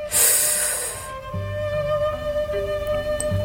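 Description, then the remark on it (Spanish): One strong, forceful sniff from a freshly uncorked bottle, a sharp breathy hiss lasting about a second, then it stops and soft sustained musical tones with low bass notes carry on underneath. No one speaks. “Al día siguiente, al despertar, destapó la botella y aspiró con mucha fuerza, tapándola inmediatamente.”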